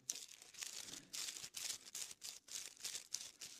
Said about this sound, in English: It's a wonderful noise in church to hear pages turn. Y'all listen to this.